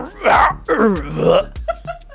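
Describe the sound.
A voice imitates a giant's deep, drawn-out groaning call, as if saying "I need a little help" in the Giant language: a few long, wavering moans rising and falling, fairly loud, followed by shorter clipped sounds.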